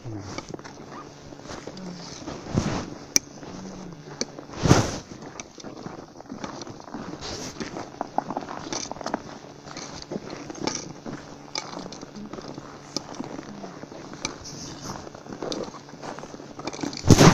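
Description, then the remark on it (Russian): Footsteps crunch steadily over ice, a continuous run of crisp, crackling impacts, with a few louder, sharper steps standing out along the way. “под ногами, блядь, Лед.”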